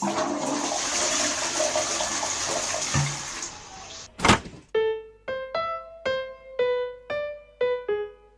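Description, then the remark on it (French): A toilet flushes with a loud, steady rush of water for several seconds, ends in a sharp thunk, then a string of clear, bright electronic notes plays a short melody. “Petit partage d'émotions sur ma cuvette à moi.”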